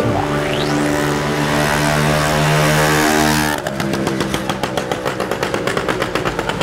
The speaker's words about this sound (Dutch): Zo'n geluid vind ik heerlijk. Zo dat prottende, je kunt u daaraan storen. En er zijn dagen dat ik mij daaraan stoor. Maar er zijn ook dagen dat ik eigenlijk kan genieten van de het geluid van de motor